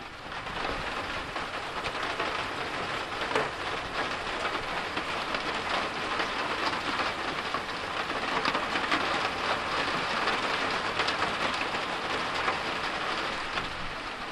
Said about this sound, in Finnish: Kuunnellaan ensin, että miltä se sade kuulostaa peltikatolla, se ropina.